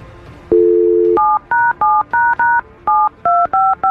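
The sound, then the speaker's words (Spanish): A fiancé's phone number is dialed for a radio program call: a steady tone at first, then a quick run of about nine or ten beeping keypad tones in an even rhythm, clear with no one talking. “Vamos a marcarle a tu prometido y te deseamos que pase lo mejor.”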